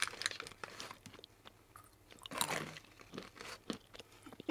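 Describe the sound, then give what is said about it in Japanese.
Crisp crunching as macadamia nuts are chewed, with irregular bursts of cracking and grinding repeating over several seconds. “うーんうまいやばい、止まらないもうボリボリいっちゃいます。”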